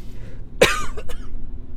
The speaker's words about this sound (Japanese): すいません。いいライブでもないのに、咳込んでしまいましたね。